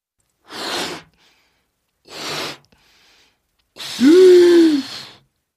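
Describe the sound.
A voice imitates a mother frog taking in more and more air until her belly is about to burst: two sharp breathy intakes, then a longer, louder strained breath with a pitched hum that rises and falls.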